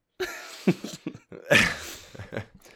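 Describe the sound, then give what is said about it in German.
A person with a lingering cough coughs several times in close succession, short rough bursts mixed with throat clearing, with brief pauses between them and no talking. “ja, ich bin, ähm, äh, wie du vielleicht hörst, ich ja. bin immer noch am Rumhusten.”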